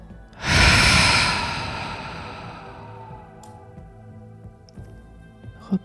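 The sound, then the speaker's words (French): A deep breath drawn in and then pushed out forcefully during a guided breathing exercise, loud, the airy rush swelling quickly and fading over about two seconds into near silence. No one speaks. “Inspirez profondément pour vous dynamiser. Soufflez fortement”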